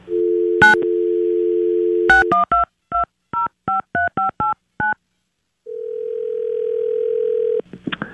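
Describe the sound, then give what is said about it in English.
A steady dial tone hums, then a quick run of about ten beeping keypad tones as a number is punched in for a call from a haunted house, followed by a long flat ringback tone and a click as the line picks up. “we're going to get Mason on the phone, and I'm going to be calling from this haunted house”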